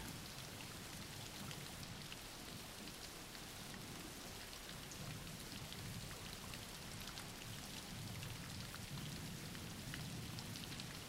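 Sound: background rain falling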